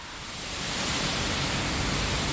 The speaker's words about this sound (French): Alors là, vous l'entendez, on est vraiment au cœur euh, de l'usine. Euh, vous entendez ça bien derrière moi, ça fait pas mal de bruit. Euh, pour vous décrire, le four est donc en construction.